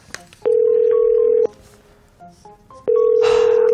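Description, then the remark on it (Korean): A phone ringback tone sounds twice as someone calls a new employee who has not shown up for work, each a steady one-second tone separated by a pause, with the call going unanswered. Faint background noise fills the gap, and no one speaks. “이상하다 뭐 전화를 안 받지?”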